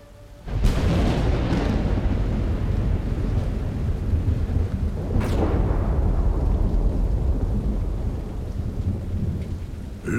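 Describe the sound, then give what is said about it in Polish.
A thunderstorm with steady heavy rain and deep rolling thunder, punctuated by two sharp, loud cracks, one near the start and another midway, with no voices. “Ludzie gadali potem, że potężna burza przyszła znikąd, jakby czaiła się w piekle albo nieopodal na terenie starych jatek.”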